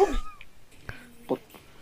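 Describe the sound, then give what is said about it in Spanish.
A cat gives one short meow at the very start, followed by a few faint taps and soft noises in otherwise quiet surroundings. “yo no ah, tengo gatos, güey.”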